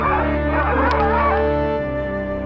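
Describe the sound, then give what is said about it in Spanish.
Several dogs bark and howl together in a loud, continuous chorus, their wavering cries layered over a steady low drone for a couple of seconds. “Y ahí están los perros que se los fuera, coman.”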